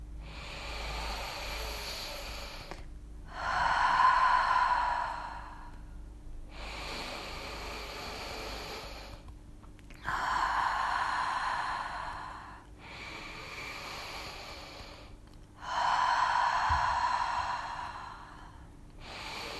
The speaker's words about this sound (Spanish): vamos a hacer un ciclo de ocho respiraciones profundas por la nariz o por la nariz y por la boca. Vamos a ello.